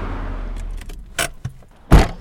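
A car engine idles low and then cuts off, followed by a few bright metallic jingles of keys and a louder clunk near the end, close by with no talking.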